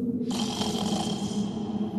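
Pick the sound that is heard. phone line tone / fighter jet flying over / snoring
snoring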